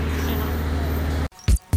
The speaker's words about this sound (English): cop cars patrolling the streets because of Pride Fest. There are so many NYPD cars out here.